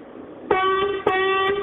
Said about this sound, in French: Un petit coup de klaxon Attends, bouge pas.